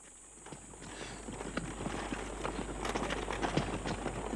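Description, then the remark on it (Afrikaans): Hooves clip-clop in a steady rhythm as a horse-drawn cart driven by a man rolls past, the clatter growing slightly louder over a constant background hum. “Na 'n ruk kom daar 'n man verby om gery op 'n perdekar.”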